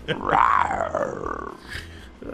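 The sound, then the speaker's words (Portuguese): A person lets out a loud, drawn-out imitation of a lion's roar, a rough growling voice that swells and then trails off over about two seconds. “Olha aqui, quando chamar, você dá um rugido, tá bom?”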